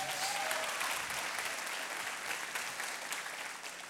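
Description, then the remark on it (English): An audience at Life Church claps steadily and warmly for several seconds to welcome the church's newest team member, dense overlapping applause with no one speaking over it, tapering off slightly at the end. “Let's just welcome her again.”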